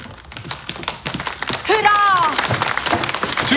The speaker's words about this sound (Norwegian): Og i ordentlig snøfalltradisjon smeller de poser med gullkonfetti.